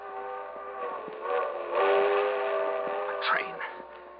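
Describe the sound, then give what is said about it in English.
A train whistle blows in one long, sustained, multi-toned note that swells louder midway, with faint clicks and rumble beneath it. “I can make that train.”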